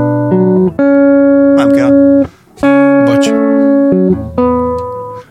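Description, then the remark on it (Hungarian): A short song passage built on a repeating piano riff, steady sustained notes stepping through the same pattern twice, loud with no singing. “hogy ez megy a zongorán végig a, a, a szövegelés alatt.”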